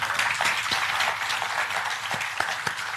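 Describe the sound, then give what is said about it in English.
An audience applauds steadily, many hands clapping at once in a dense, sustained patter with a few sharper individual claps standing out, with no one speaking. “May we give him a round of applause.”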